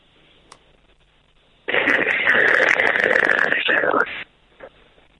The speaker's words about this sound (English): Excuse me. Sorry? I think there's some uh, interference on the satellite.